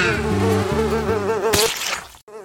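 A housefly buzzes loudly, its droning hum wavering in pitch, with a brief whooshing burst partway through and a short cut before the buzzing resumes.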